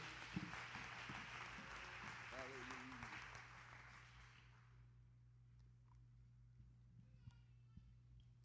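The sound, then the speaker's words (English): An audience, seated, gives the Lord a hand clap of praise together in a dense, sustained burst of hand clapping for about four seconds, with a voice faintly heard beneath it, before the applause dies away into a quiet hum. “Why don't you give the Lord a hand clap of praise as you are seated?”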